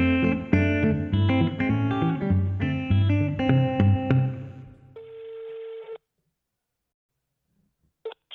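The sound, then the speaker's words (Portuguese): Upbeat music plays for several seconds, then stops for the ringback of an outgoing phone call to a tattoo studio: one steady, buzzy tone lasting about a second, a pause of silence, then the next ring starting. “Vamos dar uma ligadinha aqui para um estúdio.”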